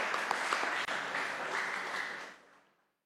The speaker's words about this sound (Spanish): Un fuerte aplauso, chicos.